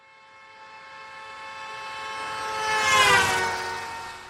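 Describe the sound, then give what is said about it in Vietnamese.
A steady, blaring car horn holds for several seconds while cars rush past on a highway at dusk, swelling loudest as one passes and then beginning to fade, with no voices. “Những chiếc xe bấm còi inh ỏi và lao vun vút bên cạnh Chan Song.”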